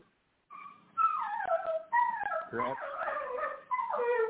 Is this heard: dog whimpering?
yes